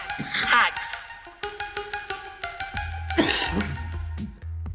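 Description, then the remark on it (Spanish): A short coughing fit: two bursts of harsh coughs, one near the start and another later, over a steady rhythmic tonal background with regular clicks. “Y este, mi, hack principal ha sido sacar las, las los hacks de, la tos que traigo ahorita, pero bueno.”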